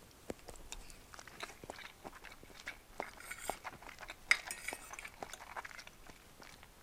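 Quiet eating sounds of home-cooked spaghetti with cutlery: soft wet chewing and slurping mixed with light metallic clinks of a fork against a plate, irregular and gentle, with no talking.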